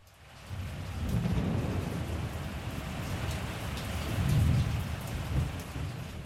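Thunder rolls through a steady downpour after lightning lights up the western sky, thunderclaps striking a church spire, two deep booming rumbles swelling up over the constant hiss of heavy rain, with no voices.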